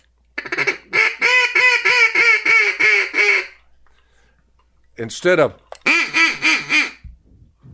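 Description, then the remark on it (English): A duck call blows a loud run of raspy mallard hen quacks in steady rhythm, pauses briefly while a voice speaks, then launches into a second quacking sequence. “Well, you got one duck under your belt. Of course, you had the mallard hen.”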